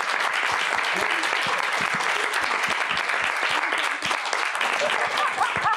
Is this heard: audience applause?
yes